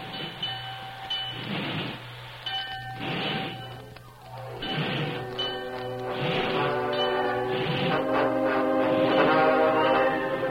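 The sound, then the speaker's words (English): The whistle of the turtleback steam locomotive blows a long, steady, chord-like tone that grows louder and sustains, layered over the rhythmic chuffing and rumble of a train with no one speaking. “He wants the wheels rolling and the whistle blowing when it takes place. There's the turtleback's whistle now.”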